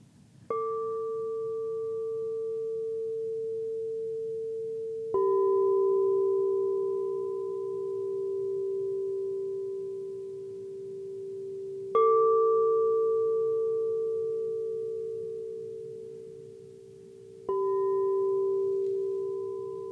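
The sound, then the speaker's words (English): A singing bowl is struck four times at slow, uneven intervals. Each strike blooms into a loud, steady ringing tone that hums on until the next, over a soft low rumble. “Whatever you feel called to do, let's do five of those and just let the bowl guide you.”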